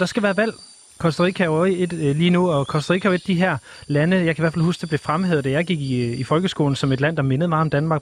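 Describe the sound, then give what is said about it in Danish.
A steady, high-pitched rainforest drone of chirring insects hums quietly beneath a man talking continuously, with no clear individual bird calls rising above it. “Og det er jo et sted, der jo altid, man jo nærmest kan forestille sig, lyder nogenlunde sådan her med regnskov og fugle og alt sådan noget.”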